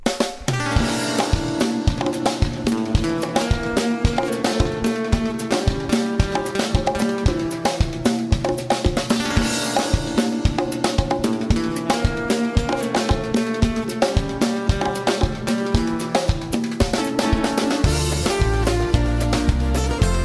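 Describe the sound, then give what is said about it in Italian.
A full-band song from 2000, from a band's third album, plays loud, driven by a steady, punchy drum beat under layered guitars and melody, continuing without any talking. “Ascoltiamo una canzone del 2000, il terzo album, correggimi se sbaglio.”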